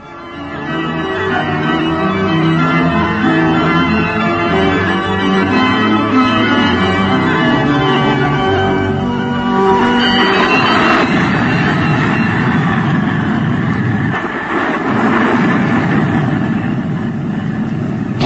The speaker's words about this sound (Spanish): Toda la furia de la tormenta se abate sobre el lúgubre castillo. Los relámpagos iluminan a intervalos los ennegrecidos muros y algunas ventanas de habitaciones abandonadas se azotan violentamente, amenazando con destrozarse.